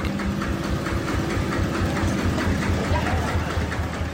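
A heavy engine rumbles steadily at close range, a low droning vehicle moving along with a continuous grinding, crunching texture over the whole stretch and no voices.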